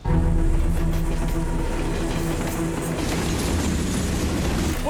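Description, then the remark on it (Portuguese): One of the world's largest freight trains rumbles steadily along the rails, a loud, continuous low roar with droning mechanical tones and a faint metallic rattle. No voices. “O programa seguiu os trilhos de um dos maiores trens de carga do mundo para mostrar o drama de quem vive às margens da ferrovia”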